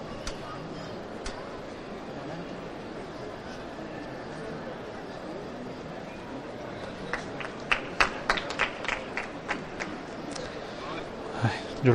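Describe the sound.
A steady crowd murmur with voices underneath at a religious procession on the official route, as costaleros carry the float of the Santísimo Cristo Yacente; scattered sharp handclaps break out in the second half and build into brief, uneven applause.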